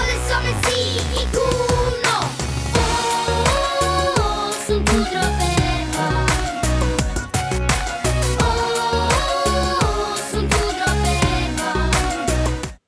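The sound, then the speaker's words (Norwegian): An upbeat pop song plays loud and steady, with bright, high-pitched young boys' voices singing the melody over a full band backing throughout. “rart å høre de stemmene der når de var ja. Altså, du hører at det er dem, men det er ministemmer.”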